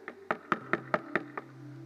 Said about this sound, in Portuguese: então de amanhã de manhã você vai lembrar: peraí, a pastora falou que Jesus estava batendo a porta do meu quarto.